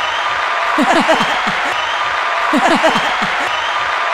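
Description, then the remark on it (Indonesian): Steady, dense clapping from several people runs throughout, with two short bursts of voiced laughter rising over it partway through. “Tepuk tangan dulu lah.”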